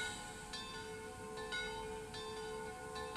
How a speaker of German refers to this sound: Genau, und so lasse ich diesen Moment jetzt auch einfach sein mit dem Glockengeläute da im Hintergrund.